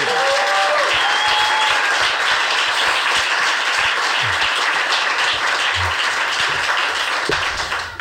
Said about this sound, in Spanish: por eso esta ovación, porque nadie había batido la frontera de las cuatro